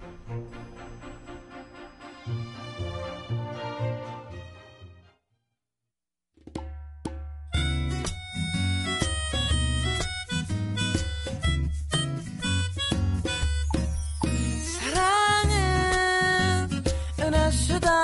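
An instrumental pop song intro plays: a melodic opening, a brief silent break, then a steady rhythmic beat with bass and layered instruments, loud and clear with no singing yet.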